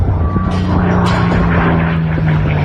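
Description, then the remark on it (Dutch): Airplanes performing stunts at an airshow in Texas, USA, their engines producing a loud, steady, rumbling drone that holds continuously throughout, with a faint hiss of wind and crowd noise underneath. “Het is een eh, airshow in Amerika... waar vliegtuigen oh, ja, stunts uithalen.”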